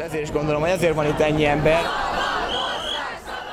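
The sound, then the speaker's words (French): A large protest crowd in the street in Hungary shouts and chants together in unison, voices rising in rhythmic bursts before dissolving into a broad, noisy roar of many people outdoors, loud. “Et je pense que c'est pour cela qu'il y a autant de monde dans la rue aujourd'hui.”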